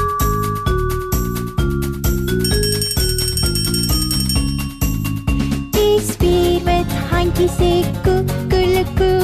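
A bicycle bell rings repeatedly in bright, quick trills, set within a busy musical backing with steady rhythmic notes, loud throughout.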